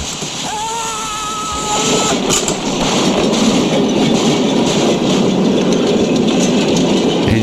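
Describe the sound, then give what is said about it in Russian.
A train rumbles steadily along the rails with a dense, continuous roar and rattling, a brief high tonal whine early on, then a louder sustained clatter as it passes by. “И вот этот вот немецкий офицер, который пытается перевести рельсы поезда.”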